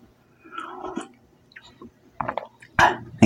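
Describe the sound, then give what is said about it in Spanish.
Someone sips tea: a few soft, wet slurps and mouth sounds spread over a few seconds, ending in a louder gulp, with no talking. “Dejen que tome un sorbito de té.”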